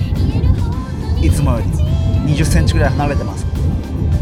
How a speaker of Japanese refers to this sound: 私のリアル富士山号の中で収録しております、まあ、安全にねマイクを固定してハンドルからは両手も離さず1人でオーディオインターフェースつないで収録しています少し車の中ですので音が反響していたり